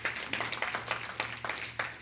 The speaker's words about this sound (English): You can give Him praise. It's okay to clap in church.